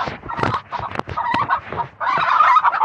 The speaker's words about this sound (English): That one that's all like uh shredded on her back, that's a fin- that's a hen.